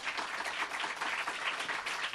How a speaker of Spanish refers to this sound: Y a todos ustedes, un aplauso.